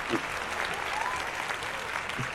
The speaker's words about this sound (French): Est-ce que ça mérite des applaudissements Oui, quand même.